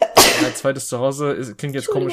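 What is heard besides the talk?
sneeze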